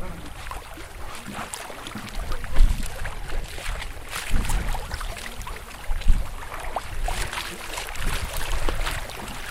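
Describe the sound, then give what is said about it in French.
A red-sailed sailboat on a gulf sailing close to the wind with its sails tightened, with steady rushing and splashing water against the hull and a constant wash of wind, occasionally swelling louder, continuous. “Donc, on a resserré les voiles pour pouvoir remonter au vent. Et puis, ma foi, ça marche bien.”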